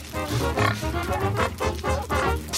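Pigs grunt and oink in a steady run of short, throaty calls, several overlapping bursts, fairly loud, with no talking.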